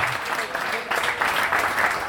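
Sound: crowd applause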